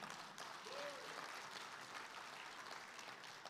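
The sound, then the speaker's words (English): Steady applause by the audience at Cap City Church as the pastor is welcomed to give the week's message, a dense wash of many hands clapping at an even, fairly loud level throughout, with a faint brief tonal sound near the start and no clear voices. “Well, I'm not sure I really deserve the applause, uh, but the praise team, they killed it, so we can give them another one.”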